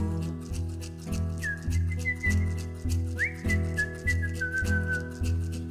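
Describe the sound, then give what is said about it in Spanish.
A person whistles a clear, sustained tune with sliding notes, carried over a steady, pulsing instrumental backing at moderate volume; no one speaks. “tensa su verdor al tibio aliento de un silbido.”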